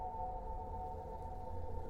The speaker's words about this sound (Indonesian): gila malam-malam kayak gini jauh dari jalan raya. Ada suara ambulans keras ini, dari mana ya gitu.